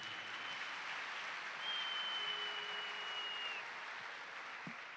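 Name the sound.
audience applause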